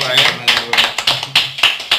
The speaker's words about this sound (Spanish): Un aplauso, para